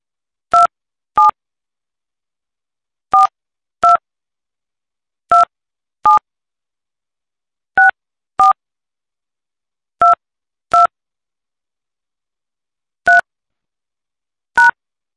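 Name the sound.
telephone keypad dialing tones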